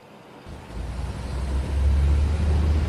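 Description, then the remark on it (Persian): A deep bus engine rumble, heard from inside a passenger bus at Tehran's South Terminal, starts up and builds steadily, the low drone growing louder and heavier as the vehicle gets going, with no voices over it. “داخل اتوبوس روی صندلی تکیه زده و چشمانش را بسته بود”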